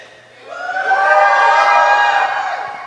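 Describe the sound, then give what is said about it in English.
An audience erupts into loud, sustained screaming and shouting, rising quickly after a brief quieter start and holding a dense, high-pitched roar of many voices for a couple of seconds. “But I want you to scream, I want you to shout.”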